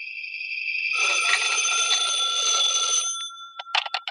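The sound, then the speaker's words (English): An old telephone bell rings loudly at home, one long jangling ring of about two seconds, then a few short clipped rings as it trails off. No one speaks. “When I got home, the phone was ringing.”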